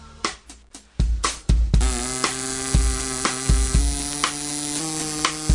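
A young man plays plastic drinking straws with small holes cut in them as a wind instrument, vibrating them with his breath; the buzzy, reedy tone holds sustained notes and steps through a melody, fairly loud over a steady thumping beat.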